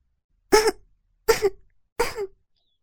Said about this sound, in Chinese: 他轻轻咳嗽几声